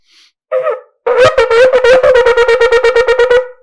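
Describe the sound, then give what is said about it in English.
A shofar sounds shevarim-teruah in one breath: a short, brassy blast, then a sustained note that breaks into a quick series of staccato pulses without stopping, the shevarim running straight into the teruah. It is loud and heard alone. “there's a shita that's usually known as the Chazon Ish, and it's also the Avnei Nezer and Chuvas that says that neshima achas is that it has to be one continuous sound.”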